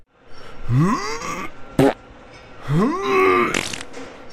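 Two drawn-out, rising fart sounds with a buzzy, tonal quality, fairly loud and close, separated by a short sharp crack, with no talking.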